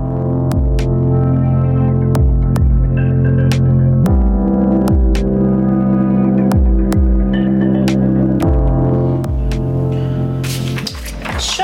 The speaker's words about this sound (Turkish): Jingle'ımızın sesini birazcık arttıralım.